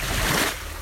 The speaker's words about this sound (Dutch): Maar dit wat je hoort is toch wel gewoon de zee.